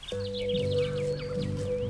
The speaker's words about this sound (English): I love listening to the sounds of our country. What birds can you hear? Mm, is it a crow? Maybe a magpie?